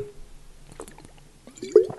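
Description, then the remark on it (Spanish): A person drinks water: a few quiet, soft wet sips and slurps, then a more audible gulp near the end. No one speaks. “Bebiendo agua, chavales.”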